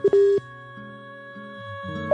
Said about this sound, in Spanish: habla como un teléfono, hace pi.